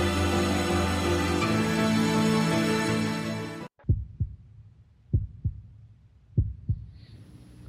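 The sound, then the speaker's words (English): A loud heartbeat thumps in three lub-dub pairs at a slow, steady pace, following a few seconds of dense, droning music that cuts off abruptly. “There's that heartbeat again, which obviously means it's back to part two of the live edition of”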